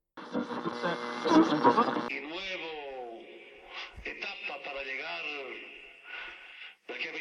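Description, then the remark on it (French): A small transistor radio, tuned by a man sitting on the edge of a bed to find a local football match, crackles with dense static and whistling tones for a couple of seconds, then settles on a station where a voice talks through a thin, steady hiss. “Il s'assoit au bord du lit et cherche la fréquence.”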